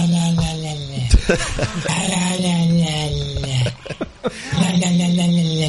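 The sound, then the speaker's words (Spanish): A dog makes eerie, speech-like vocalizations: drawn-out, wavering groans and moans with rising and falling pitch, several utterances broken by short pauses, fairly loud. “Es un perro, tío. No puede ser, si parece el principio de la obsesa.”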